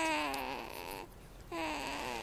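A sleeping baby's small noises: two drawn-out, soft whimpering coos with a brief pause between them, with no one talking.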